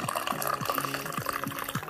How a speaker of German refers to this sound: So, mein Tee ist, glaube ich, schon kalt. Ich muss noch mal einschenken.